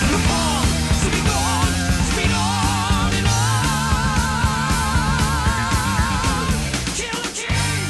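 A loud, dense stretch of hard rock with driving drums, heavy bass and distorted guitars, a high wavering vocal line soaring over the top, easing off slightly near the end.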